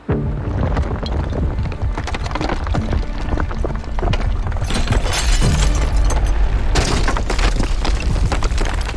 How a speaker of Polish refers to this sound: O godzinie 5.13 miastem coś szarpnęło, a następnie wprawiło w ruch. Dudnienie, drgania i huk nakładały się na siebie. Pękające ściany przewracały się na ziemię, a ich śladem szły dachy, które swym ciężarem przygniatały wszystko to, co znajdowało się